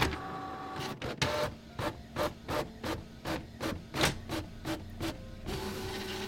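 A printer feeds out a sheet of facts about the Big Bang: a steady mechanical whir broken by a quick run of about a dozen rhythmic, scraping print-head passes, then a smoother hum as the page finishes. No one speaks.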